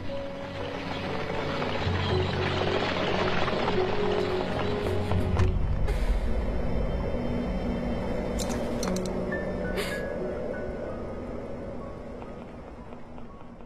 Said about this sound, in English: Suddenly, a voice bellowed, Out of my way! At that moment, she heard the thundering sound of horses' hooves.